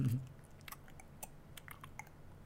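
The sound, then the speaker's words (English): Quiet gum chewing made by mouth: a string of soft, wet smacks and clicks at an uneven pace, with a faint low hum underneath and no talking. “Can I be a guy in a supermarket where they're like getting supplies ready, and I'm just like like chewing on some gum at like the cash register, and I'm just like.”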